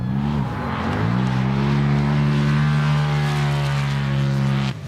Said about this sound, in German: Verschiedene Rallye-Autos donnern im direkten Duell über den kleinen Rundkurs auf Eis.